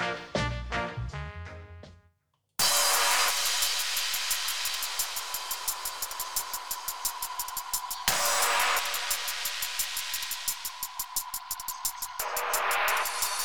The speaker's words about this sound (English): kde najdete takový drum and bass kombinovaný s junglem a není to vůbec špatný.